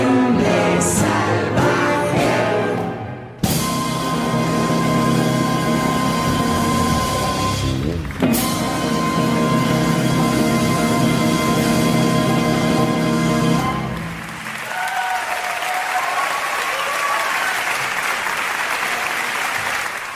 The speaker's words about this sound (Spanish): Con estos aplausos eran recibido ese innumerable grupo de músicos en, una de las actuaciones que ha tenido lugar este ensemble salvaje.